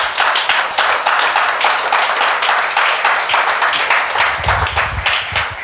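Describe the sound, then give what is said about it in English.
An audience claps steadily, many hands producing a dense, bright patter of overlapping claps that holds a fairly even loudness throughout. “Yeah, give it a clap.”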